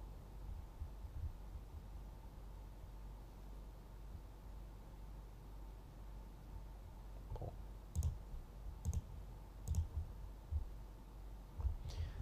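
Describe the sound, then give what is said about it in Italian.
A computer mouse clicks several times in a short, irregular cluster near the end, fairly crisp, over a steady low background hum and hiss with no talking. “Allora, allora, allora, io ogni tanto sentite il mio mouse che clicca”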